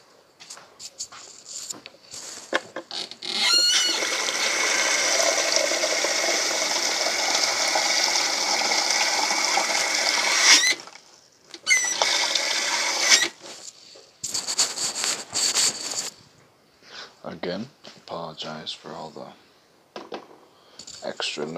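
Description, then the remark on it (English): Water pours steadily into a pot, filled to about half, up to the eight mark, with a loud, even rush for several seconds, then comes in shorter bursts, separated by quiet gaps and scattered light clatter. “Um, I'm not going to do a full pot either. I'm going to do about a half a pot. So i will do, to will fill it up to eight.”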